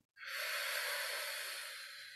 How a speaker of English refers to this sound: That's it, just breathing in through your nose and out through your mouth and just taking your time, take some deep breaths,